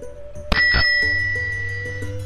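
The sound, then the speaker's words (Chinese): A bicycle bell rings twice in quick succession, two bright metallic dings whose high, clear tone lingers and slowly fades afterward, with no voices present, as someone rides off on a bicycle. “他给了吉尔莲一个大大的拥抱，骑上自行车走了。”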